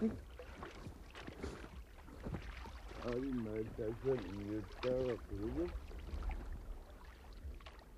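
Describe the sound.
An oar splashes and sloshes in water beside a small boat approaching a dead seal off an ice edge, with irregular wet strokes against a windy outdoor background while a voice calls out briefly in the middle.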